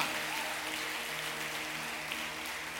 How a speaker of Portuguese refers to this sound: Antes de você sentar, você pode dar um forte aplauso ao Senhor novamente, aleluia.